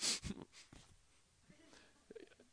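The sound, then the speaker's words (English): A person imitates heavy, angry breathing out of both nostrils, like a bull: one loud, forceful snorting exhale at the start, followed by faint breathy murmurs and soft voice sounds. “That the language means uh, breathing heavily out of both nostrils. You can picture like a bull or something”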